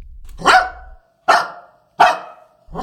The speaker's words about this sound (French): Mais tout à coup, un chien surgit devant lui et se met à japper